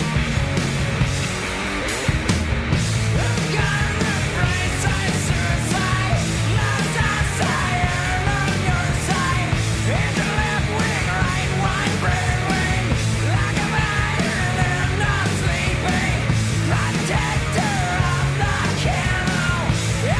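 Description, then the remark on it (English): A loud, distorted grunge rock song by a band plays throughout, with the singer's raw, screamed male vocal straining over heavy guitars and pounding drums at a steady, dense intensity. “I like this one. I like when he screams.”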